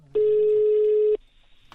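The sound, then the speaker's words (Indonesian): A single steady electronic ringback tone on an outgoing phone call to a singer, formerly of a band, lasting about one second, clear and fairly loud, then cutting off abruptly with a faint click afterward. “Coba, gue sekarang coba telepon … dulu ya.”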